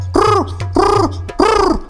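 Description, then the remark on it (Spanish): Three evenly spaced coos from a captured pigeon held by people, each a rounded, rising-and-falling call about half a second long, fairly loud over a faint steady low hum. “Pero los humanos solo escuchan algo así como...”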